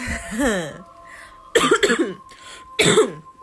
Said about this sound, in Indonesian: batuk adalah identik atau maskot utama dari podcast kisah horor